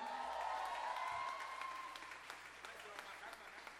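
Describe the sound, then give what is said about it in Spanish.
Applause from an audience, a steady wash of many hands clapping at moderate volume that gradually thins out, with a faint sustained tone early on. “Un aplauso.”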